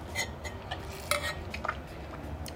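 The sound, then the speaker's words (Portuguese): Someone sips water from a glass, with a few light glassy clinks and soft taps scattered over a couple of seconds, faint against a low steady hum and no talking. “Essa pausa aí que eu dou é para beber uma água, tá, galera?”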